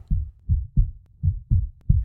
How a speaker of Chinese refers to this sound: 水晶灯突然歪斜了一边，小猫马上想到它自己做的那个梦：水晶灯会掉下来吗？它的心跳变得好快。